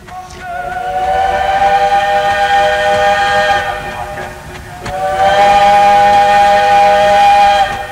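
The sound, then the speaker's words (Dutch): Two long, loud blasts of a train whistle, each held for a few seconds with a brief pause between them, with no voices present. “Daardoor bereikten 155.000 demonstranten per spoor het andere verzamelpunt in Den Haag, het Malieveld dus.”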